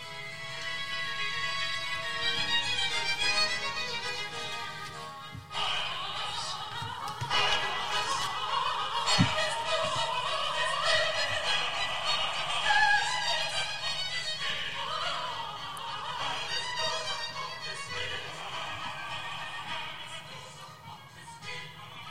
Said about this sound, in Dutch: Nou, je hoort in dat fragment hoe Bach in de muziek, de, de, de tekst is van, van Salomo Frank, dat is dus niet van Bach, maar Bach, eh, eh, de muziek, eh, legt met zijn interpretatie alle accent op dat alles.